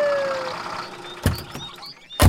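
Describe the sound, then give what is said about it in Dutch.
A fire engine's siren tone trails off at the start as a large red fire truck, with blue flashing lights and very large ladders, rumbles in. Two sharp, heavy thumps follow, like doors or equipment banging at the truck. No one speaks. “Ze bellen de brandweer en even later komt er een grote rode brandweerauto aanrijden. Met blauw zwaailicht en met heel grote ladders.”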